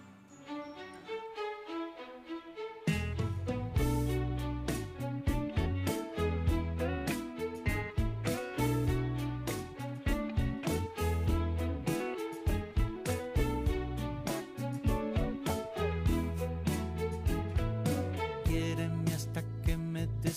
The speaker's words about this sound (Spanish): hacemos una breve pausa para escuchar una de las nuevas canciones del disco …